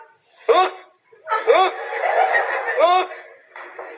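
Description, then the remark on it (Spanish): A person imitates a dog barking: a few sharp, separate yips with a drawn-out, whiny bark-like sound in between, then a brief softer vocal noise at the end. “le decía, a ver, sultán, lata, sultán”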